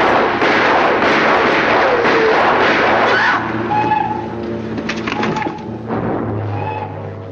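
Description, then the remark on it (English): A dense, loud barrage of gunfire crackles for several seconds, overlapping rapid shots and bursts, then thins into scattered cracks and ringing debris with a low rumble underneath. The shots are fired at one of Frazier's men standing in a phone booth. “So Rocky got one of Frazier's men to go into the phone booth, and that's who was shot by the other guys.”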